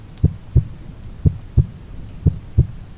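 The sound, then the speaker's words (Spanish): A muffled, low heartbeat thumps steadily in paired lub-dub beats, three double pulses over a few seconds, dull against a faint background hum with no voices. “Era un rumor sordo, ahogado, frecuente, muy análogo al que producía un reloj envuelto en algodón.”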